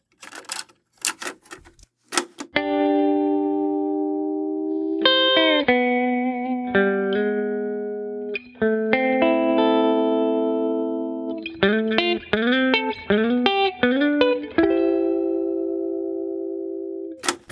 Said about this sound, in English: There's a guitar that comes in sounds, to my ear, dare I say, rather country.